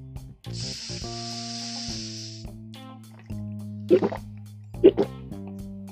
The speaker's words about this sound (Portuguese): vamos dar esse golinho d'água juntos. Atenção, vou contar até três. Minto, vou contar de trás para frente. É no um, então. É três, é dois, é um gole d'água do Sonic.